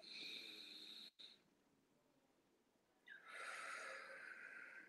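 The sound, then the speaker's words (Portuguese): A person demonstrates diaphragmatic breathing: a deep, airy breath drawn in, a quiet pause of about two seconds, then a long, forceful breath blown out, loud and rushing. “Você sobe a respiração, segura uns 5 segundos e solta, né?”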